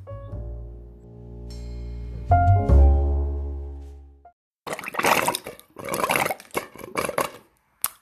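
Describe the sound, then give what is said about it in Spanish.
Water runs with a hollow, gurgling, rising tone for about four seconds, then cuts off. A series of irregular sputtering, hissing bursts follows as the flow runs dry. “Ah, se terminó el agua.”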